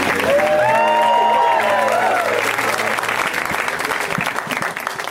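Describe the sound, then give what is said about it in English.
An audience applauds a comedian loudly as he finishes his set, dense clapping with whoops and cheers rising over it early on and the ovation continuing steadily throughout. “Joe Zimmerman, you guys, let him hear it.”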